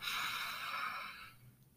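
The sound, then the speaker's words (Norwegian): A single long, deep breath drawn in through the nose as a breathing exercise, an airy hiss lasting over a second before fading away, with no talking. “Du kan bare puste dypt inn gjennom nesa.”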